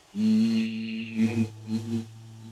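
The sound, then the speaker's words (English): A low, steady hum from the chest holds for a couple of seconds, fairly loud, with a few gentle swells in the tone toward the end. “You don't have to make a proper um sound, even just humming or just sort of like vocalizing uh, in that chest, as you said, uh, is enough um, and you try and get a little bit lower.”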